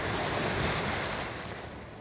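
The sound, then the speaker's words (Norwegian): Ocean waves wash onto a beach in a steady, broad roar of surf, fairly loud, with some wind buffeting the microphone and no voices. “Rett ved havet”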